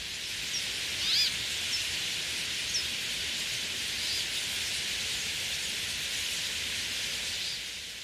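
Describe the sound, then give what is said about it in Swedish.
A dense, continuous wash of high-pitched calls from a huge flock of bramblings, said to number between 5 and 7 million birds that roosted together overnight, fills a forest, blending into a steady hiss with occasional brief chirps standing out; no one speaks. “De kanske måste flytta sig snart men det är ett väldans ljud i skogen. De låter lite som kväkande fåglar kan man säga.”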